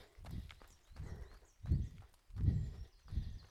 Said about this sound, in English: Lots of pigeons just bursting into flight there. That's what that noise was.